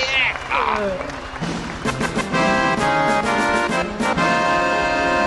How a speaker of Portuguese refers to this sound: Palmas digitais!